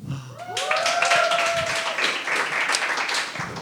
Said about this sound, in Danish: Og folk klapper af, at øh, din sæd virker, gætter jeg.